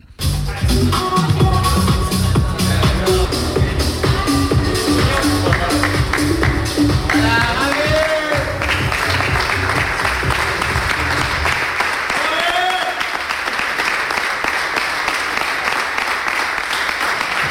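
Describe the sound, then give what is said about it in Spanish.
Loud, sustained applause and cheering in the FC Barcelona locker room as Gaby arrives on crutches, swelling over music with a steady beat; the music fades out until only dense clapping and voices remain. “se apaga la música de ese vestuario y el aplauso se come a la música y es muy llamativo”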